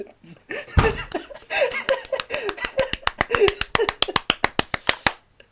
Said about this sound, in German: Applaus.